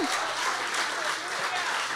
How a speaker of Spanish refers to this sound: Si le va a dar un aplauso al Señor.